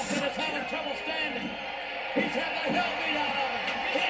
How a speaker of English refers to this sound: Listen to that crowd too.